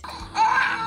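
A newborn baby girl cries in a single sustained, high-pitched wail that rises sharply after a quieter start, fairly loud, with no talking over it.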